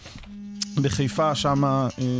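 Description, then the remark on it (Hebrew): A steady electronic buzz from the broadcast studio's phone sounds on its own for about half a second, then a man starts talking over it and the faint hum lingers underneath. “צריך לשים על אה, השתק את הטלפון של השידור.”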